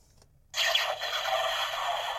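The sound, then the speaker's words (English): After a brief silence, a novelty Death Star timer alarm suddenly goes off with a loud, harsh, hissing electronic blare that holds steady until the end, with no talking. “Uh, that's the lovely noise it makes when it goes off.”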